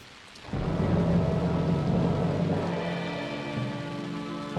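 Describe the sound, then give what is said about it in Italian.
Steady rain pours down in a forest after a quiet start, a dense hiss of drops with a deep rumbling undertone like thunder, loud and continuous throughout. “La luce è tornata, ma poi è andata via quasi del tutto ed è arrivata l'acqua, la pioggia.”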